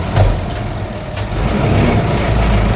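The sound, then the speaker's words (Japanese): A heavy garbage collection truck returns, rumbling with a deep, steady engine drone, broken by a couple of brief sharp hissing bursts like air brakes releasing. “はい今 ゴミ収集車が今帰ってきました、ゴミの匂いがゴミの匂いするな”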